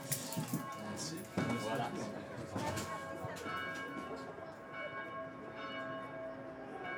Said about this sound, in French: Voilà, donc la cloche m'appelle.